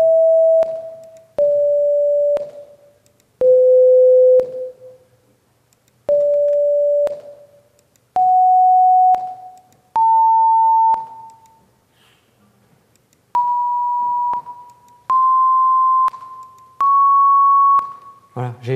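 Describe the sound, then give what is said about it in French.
A series of steady synthesized tones playing the first notes of a disk's vibration spectrum, roughly one per second, each a pure held note with sharp onsets, stepping through different pitches and generally rising toward the end, loud and clear with no voices. “Alors, j'espère que ce n'est pas une note trop aiguë, parce que je ne voulais pas vous faire entendre des notes trop aiguës.”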